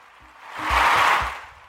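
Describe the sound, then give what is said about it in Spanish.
A short burst of crowd applause swells up, holds briefly, then fades away, with a few low thumps beneath the dense clapping and no voices. “Un fuerte, fuerte aplauso porque Ustedes nos han apoyado y ya hemos llegado a las mil vistas en el canal de YouTube y estamos muy agradecidos con Dios por este privilegio.”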